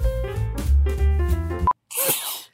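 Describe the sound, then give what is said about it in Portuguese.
A short stretch of music cuts off with a brief beep, and after a moment of silence comes one loud sneeze, a sharp breathy burst heard on its own. “Deus, Deus te crie, saúde.”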